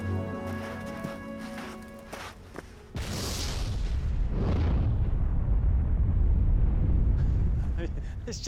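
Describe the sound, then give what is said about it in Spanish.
An eruption blast from the Stromboli volcano erupts abruptly after a few seconds of steady mechanical hum, followed by a long, loud, roaring rumble with hissing, gusty noise that slowly fades. “Ha estallado justo cuando hemos llegado. Aquí lo llaman resoplar. Ha sido un gran resoplido.”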